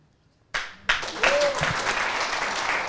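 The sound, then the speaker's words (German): Applause breaks out suddenly after a moment of quiet, swelling quickly into a dense, steady wash of many hands clapping that continues at full strength, with a faint voice or two beneath it. “Applaus voll stark, gell?”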